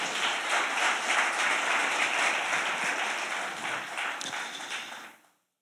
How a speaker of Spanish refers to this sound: Dale ese aplauso al Señor.